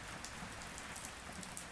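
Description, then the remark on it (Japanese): Steady heavy rain pours down near a hotel in a dense, continuous hiss, with scattered drops pattering on a hard surface. No voices, just the unbroken downpour throughout. “この大雨にもかかわらず彼らはそこから動く気配はない”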